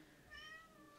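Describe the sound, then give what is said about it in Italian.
A single short cat meow, fairly soft, rising briefly out of a quiet hum with no one talking. “E questo era il gatto, se eh, avete sentito?”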